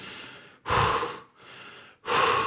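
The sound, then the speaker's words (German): A person imitates the heavy, exhausted breathing of someone after a hard training session: two loud, drawn-out breathy exhales, each following a softer intake of breath, with no talking. “so viel zu laut auch ausatmen, so voll lethargisch.”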